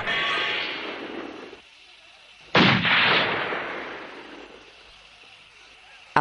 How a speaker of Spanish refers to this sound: Otra bala impacta cerca de él. Descubre al soldado que dispara con pulso tembloroso.